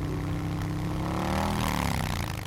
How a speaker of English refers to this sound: Sam and Miles, you two hear the sound of a motorcycle pull up nearby. This is like a motorcycle motorcycle.